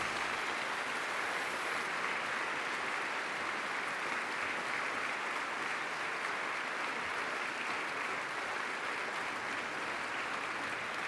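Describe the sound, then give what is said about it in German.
A crowd applauds steadily for about eleven seconds, a dense, even wash of many hands clapping with no pauses and no voices. “Vielen Dank für den Applaus.”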